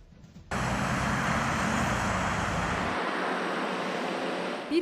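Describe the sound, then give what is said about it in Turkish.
A dense, steady roar of morning road traffic in a big city, returning to normal as pandemic measures eased in June, starts abruptly after a brief quiet moment and holds at a loud, constant level, with the deep rumble thinning slightly near the end. No one speaks. “Normale dönen sabah trafiği ise büyük şehirlerde kameralara yansıdı.”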